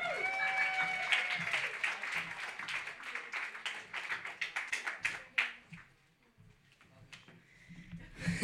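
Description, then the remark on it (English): An audience claps steadily for several seconds to welcome a poet to the stage, a dense patter of hands that thins out and fades toward the end, with a few murmurs underneath. “Give it up”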